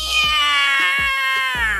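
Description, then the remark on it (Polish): A cat lets out a long, loud, strained yowl, a sustained wailing cry with wavering pitch, on its own with no talking, as it is put into bathwater. “Wrzasnął kot i wyskoczył tak szybko i tak wysoko, że aż zostawił mokre ślady na suficie.”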